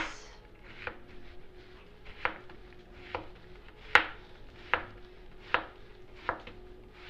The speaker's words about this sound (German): Dann kann ich mir das Ganze, also die ganzen vier Teile, so hinlegen aufs Brett und ganz schmale Scheiben runterschneiden.